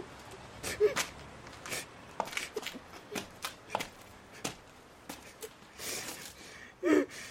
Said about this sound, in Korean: 그만 울어 그만.